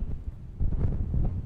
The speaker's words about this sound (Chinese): 你没听到我的麦在响？好像我这里在吹大风了一样，有没有？可是根本没有，我一直静静的坐在这里。